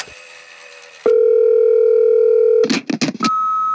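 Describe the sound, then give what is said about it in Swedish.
A low hissing pause, then a loud, steady telephone dial tone hums for about a second and a half before a quick burst of rising connection chirps, ending on a single higher tone, as a call connects to an interview guest. “Men nu tycker jag vi kopplar upp oss eh, med Lena här.”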